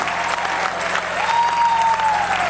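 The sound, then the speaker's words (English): A church audience of worshipers claps hands in worship and praise, a dense, steady wash of applause, with a faint whistle-like tone rising and falling partway through. “I think our worshipers are to pull out their pull out their instruments and begin to clap their hands and begin to open their lips and begin to worship and praise until the devil can't even stand the sound.”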